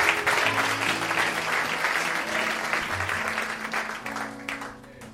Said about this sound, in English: A round of applause for the word of God.